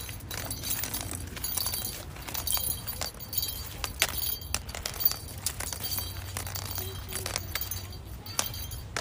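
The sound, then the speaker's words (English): A cane taps and scrapes against the ground in quick, uneven, fairly crisp strikes, over a steady low rumble of outdoor background noise. “And this tapping slash noise is my cane.”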